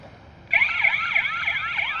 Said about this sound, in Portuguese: Tem a sirene bem alto. O chamado aciona um guarda municipal de plantão no COP, o Centro Integrado de Operações da Prefeitura.